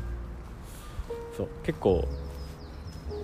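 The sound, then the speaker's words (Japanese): Many birds call outdoors in a garden-like area in a quick series of thin, high chirps, faint, while a person talks briefly over them. “今結構いっぱいいるんだけど鳥の声とか聞こえるか”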